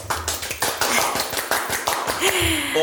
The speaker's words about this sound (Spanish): Un aplauso, por favor.